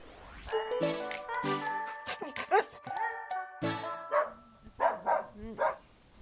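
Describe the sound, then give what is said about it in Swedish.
Several dogs bark and yelp in quick, overlapping bursts in a dog park, with a light metallic jingling mixed in and some human voices in the background. “Men eh, självklart så hann vi med en stund i hundparken.”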